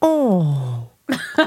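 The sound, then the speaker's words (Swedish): A voice imitates the moan a man makes while sleeping: one long, loud 'åh' that slides downward in pitch for almost a second, then stops. After a short pause, a couple of quick spoken syllables follow. “han låter ju så här när han sover.”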